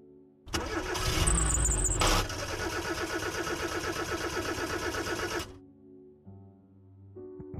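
A car over a decade old roars loudly on a slight incline, then falls into a strained, rhythmic sputtering that suddenly cuts out, leaving near silence with only faint tones afterward.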